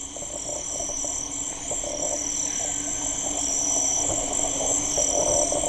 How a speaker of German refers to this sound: Ja, so hört sich die begehbare multimediale Arbeit vom Schweizer Künstler Markus Mäder an. Forest Spirit Florist. Der macht mit Spezialmikrofon hörbar, was wir eigentlich gar nicht hören können, nämlich das Wachstum der Pflanzen